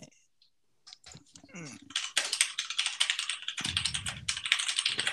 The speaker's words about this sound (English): live research ladies and gentlemen you can't get this anywhere else just like the newsroom at CBS News when JFK died, you could hear the typewriters and the, and the machines going on in the background.